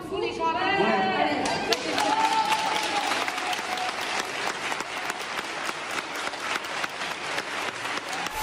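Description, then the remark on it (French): Sustained applause from a sizeable crowd in tribute to healthcare workers, dense overlapping claps continuing steadily throughout, with some voices calling out over the clapping in the first couple of seconds. “On peut s'applaudir comme le soir”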